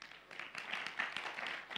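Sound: audience clapping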